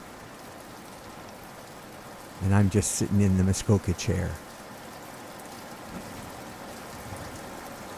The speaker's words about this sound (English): This is a rainy afternoon here at Phil's Inn.